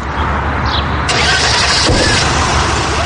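car engine starting

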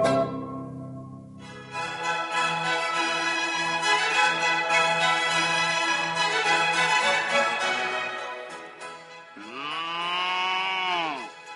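cows mooing

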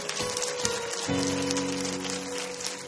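audience applauding

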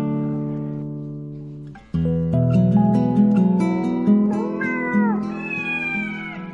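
cat meowing

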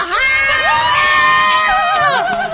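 concert crowd cheering

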